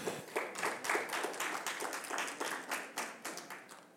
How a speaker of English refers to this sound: Come on, give Jesus a hand clap of praise for that.